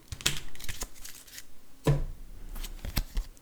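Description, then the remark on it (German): The encounter deck of a card game being shuffled, with a quick series of soft, papery riffles and taps and one sharper flutter about midway. Fairly quiet, and no one speaks over it. “Ähm, mische eine beiseite liegenden Kopien von dämonisches Flötenspielen, das Begegnungsdeck.”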